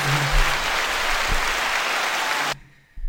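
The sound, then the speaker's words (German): A dense burst of applause from a crowd, loud and steady for a couple of seconds before cutting off abruptly into near silence. “Applaus.”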